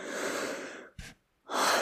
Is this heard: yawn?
yes